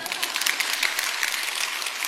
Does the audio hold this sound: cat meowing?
no